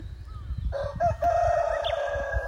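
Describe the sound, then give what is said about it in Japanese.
A rooster crows once in a long, drawn-out call that rises and holds before trailing off, set against steady low rumbling outdoor background noise, at a farm field on Awaji Island, Japan. “なんか今これ聞こえてるかわかんないんですけどめちゃくちゃいろんな音がするんですよこれ聞こえますかねなんかただの鳥の声だけじゃなくていろんな種類の鳥の声が聞こえて めっちゃ、ね、な鶏も鳴いてるんですけどいやなんか本当にいろんな動物が動物の声だったりとか”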